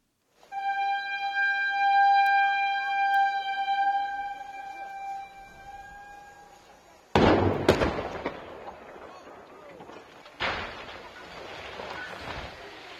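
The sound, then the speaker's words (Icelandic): A steady, high warning horn sounds for several seconds just after 2 pm in Akranes, then a sharp explosive blast from the demolition of the cement factory's chimney erupts, followed by rumbling debris and a second heavy crash as the upper part of the 60-year-old chimney falls. “Í sprengingunni upp úr hlukan 2 fjall efri hlutin”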